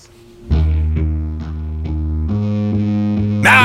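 A distorted bass guitar plays sustained low notes during a soundcheck, repeated plucks roughly every half second with a pitch change near the end, loud and alone, finishing with a bright burst of noise.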